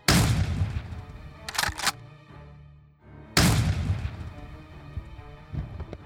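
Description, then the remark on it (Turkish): Loud, sharp rifle gunshots, fired from behind at a couple about to enter a house, crack in quick bursts, with a brief lull before another heavy volley and rumbling echoes trailing off. No one speaks. “16 Eylül 2013 günü çift tam eve girecekken arkalarından kulaklarını patlatacak kadar bir ses duydular.”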